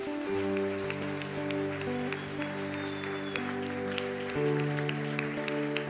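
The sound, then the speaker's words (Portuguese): A church audience applauds for Jesus with steady, dense clapping throughout, layered over sustained keyboard chords that shift pitch midway; no one speaks. “Dê a sua melhor salva de palmas a Jesus.”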